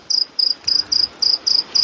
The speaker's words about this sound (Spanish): Pero te lo juro, estaba oyendo grillos, digo, nosotros no somos, te juro que estaba oyendo grillos, no es coña.